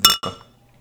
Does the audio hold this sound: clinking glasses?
yes